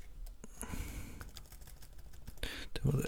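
Quiet, irregular clicking of keys being typed on a computer keyboard, a few quick taps at a time with short pauses, over a soft breathy background.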